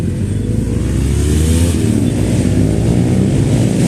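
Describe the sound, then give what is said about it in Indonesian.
Two sport motorcycles, an R25 and an R15, roar past with loud, revving engines in illegal street racing, a dense low growl whose pitch rises and shifts throughout, steady and sustained with no voices. “tiba-tiba ada R25 dan R15 melintas.”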